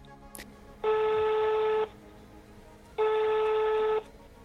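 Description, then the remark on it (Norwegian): A telephone call to the cleaning company CityMade ringing out: after a brief click, two steady ringback tones sound, each lasting about a second with a pause between, clear and fairly loud with no talking. “Jeg ringer til CityMade”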